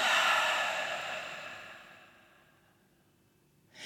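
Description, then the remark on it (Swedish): A slow, audible exhale through the mouth during a guided breathing exercise, breathy, starting strong and gradually fading out over a few seconds, followed by the start of a fresh breath. “Och den här gången andas vi ut genom munnen.”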